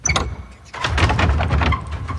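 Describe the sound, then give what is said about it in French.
A heavy side door in a church opens: a few quick latch clicks, a brief pause, then a long, loud scraping rumble as it swings, echoing. “si on ouvre une seconde porte, oui, parce qu'il y a des portes là sur les côtés”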